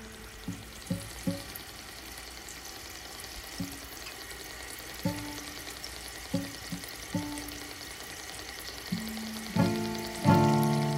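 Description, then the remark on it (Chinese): An aquarium air pump bubbling water in a home living room on a quiet night: a steady fizzing hiss with irregular low, hollow bubble pops that grow louder and more frequent toward the end. No one speaks. “最后，宁静的夜里，我家客厅剩下不停止为鱼缸扬水打气的声音。”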